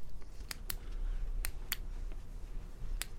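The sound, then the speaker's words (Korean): A large spiral notebook is opened and a ballpoint pen picked up: a handful of crisp clicks and light paper handling, spaced irregularly over a quiet low background hum. “김 작가는 커다란 스프링 노트를 펼치고 볼펜을 들었다.”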